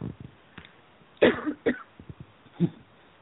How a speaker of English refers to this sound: And um, oh, excuse me, I just have a little cough. I'm just going to take a moment.